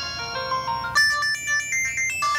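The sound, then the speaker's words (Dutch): A cheap India-made mobile phone, being tried through its different ringtones, plays a quick, shrill electronic melody of bright beeping notes, switching to a higher, harsher tune partway through, loud with no voices. “Let's try the different ringtones.”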